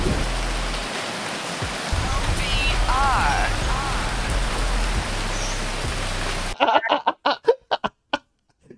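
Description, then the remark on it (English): Steady rain hisses for several seconds, a dense, even wash of falling drops with faint chirps over it, then cuts off abruptly as a voice starts talking. “Um, was supposed to be a break in there for some for, for some rain?”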